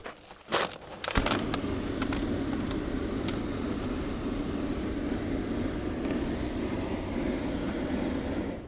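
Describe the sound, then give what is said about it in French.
A hot air balloon burner roars steadily and loudly for several seconds, a continuous rushing blast that starts after a few brief crinkling clatters at the beginning. No one speaks. “c'est le bruit de la montgolfière.”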